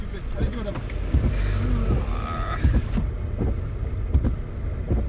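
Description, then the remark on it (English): Windshield wipers switch on inside a car, their repeated soft thumps sweeping over a steady low engine rumble, with faint voices murmuring in the background. “All right, so uh, why are the windshield wipers? I hate this car.”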